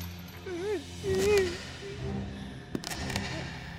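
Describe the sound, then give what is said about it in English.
Metal chains clink and rattle in a few sharp jangles toward the end as someone tries to remove the chains, after a person's low, wavering moans and whimpers, over a dim, murky background. “She tries to remove the chains.”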